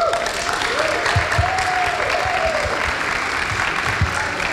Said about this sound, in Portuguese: Então, por favor, recebam com uma salva de palmas o nosso convidado mais do que especial, José do Egito.